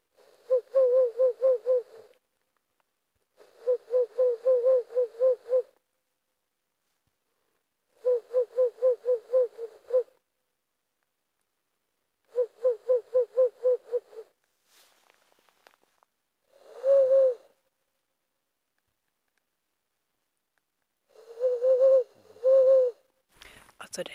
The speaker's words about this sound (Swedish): Och så hör vi mitt i allt en slaguggla på avstånd.